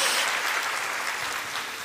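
A church audience applauds during a sermon, a dense crackling wash of many clapping hands that stays loud and even throughout, with no voices breaking through.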